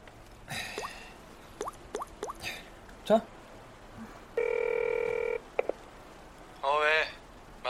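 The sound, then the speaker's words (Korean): A phone call being dialed: a run of quick, light taps, then a steady buzzing tone lasting about a second, followed by a short warbling ring over faint background noise. “전화 걸어줄게.”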